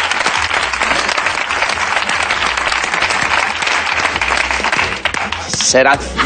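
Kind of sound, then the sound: crowd, applause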